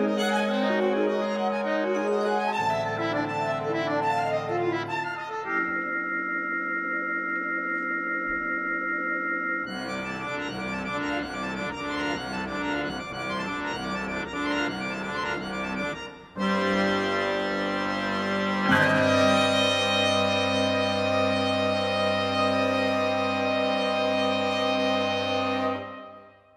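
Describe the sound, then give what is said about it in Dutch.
A harmonium concerto passage with ensemble: sustained reedy chords and bright, busy instrumental textures shifting abruptly between sections, loud and dense throughout, with no voices. It is Harlepiep, first movement of Martijn Padding's First Harmonium Concerto, with Dirk Luimers on harmonium and the Asko Schoenberg ensemble conducted by Etienne Siebens. “U hoorde Dirk Luimers op harmonium en het ensemble Asko Schoenberg onder leiding van Etienne Siebens.”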